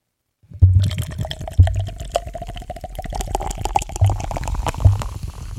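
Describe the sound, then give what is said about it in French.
Schlitz beer pours steadily into a glass for about five seconds with a fizzy, splashing rush, a few deep glugs, and a faint tone that rises as the glass fills. No voices. “je vais verser ma Schlitz, monsieur.”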